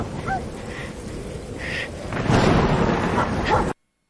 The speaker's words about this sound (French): La pluie. J'étais dans le bois. J'avais froid. L'humidité me transperçait les os. Oh, tiens, un éclair. Faut que je bouge. Un chien, un loup, qu'est-ce que c'est?